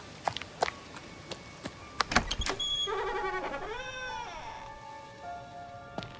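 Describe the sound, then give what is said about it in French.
A door is pushed open with a long, wavering hinge creak lasting a couple of seconds, preceded by a few sharp clicks of the latch. It is fairly quiet, with no talking. “C'est peut-être la première fois que Lisa pousse cette porte, pourtant, elle a l'impression de rentrer à la maison.”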